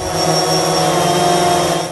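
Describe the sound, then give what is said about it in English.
A drone's propellers whine in a steady, high-pitched buzz that stays loud throughout, with no pauses and no voices; the drone is flown by university researchers surveying wildfire aftermath from the air in British Columbia. “Drones now being deployed by UBC researchers to survey the aftermath like never before rather than just measuring at the base of the trees like a traditional forestry would, we're able to use the aerial view that drones give us.”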